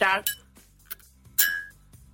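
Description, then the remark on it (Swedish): A jaw harp is plucked a few times: short, bright metallic twangs that ring briefly and fade, with quiet gaps between the irregular strikes. “Det är min mungiga.”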